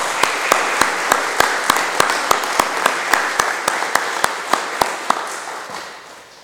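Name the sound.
audience applause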